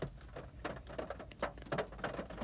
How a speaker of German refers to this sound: Und oh, es regnet gerade. Ich weiß nicht, ob du das hörst. Das Plätschern. Ich sitze nämlich ja gerade noch im Auto.